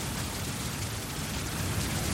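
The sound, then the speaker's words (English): A steady wash of rain-like hiss from a played rain sound effect fills the whole clip, dense and even, sounding more like harsh static noise than natural rainfall, with no voices present. “That's the worst sound effect you've ever produced. that sounds like scary static noise.”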